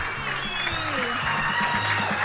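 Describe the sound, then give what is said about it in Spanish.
Recorded crowd applause and cheering, played by a show host as a welcome: a dense, steady wash of clapping throughout with a few high whistle-like tones rising above it. “A ver, déjame, ah, pongo acá la gente recibiéndome.”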